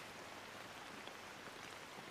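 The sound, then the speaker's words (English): Steady rain falls in a soft, continuous hiss, even and unbroken, with faint patter of drops on a surface and no voices. “Now scan your awareness down, and as you continue to listen intently to the sound of the rain falling, feel your breath's expression in your ribcage.”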